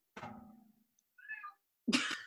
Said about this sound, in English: just because my cat's meowing.